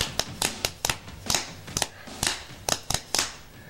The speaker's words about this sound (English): my roots are very much surf music. My first band was a surf band, and there was surf stomps. And I can show you, you know, a, fl- a surf stomp is like a flam thing.